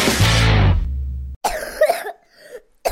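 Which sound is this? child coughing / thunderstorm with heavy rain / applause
child coughing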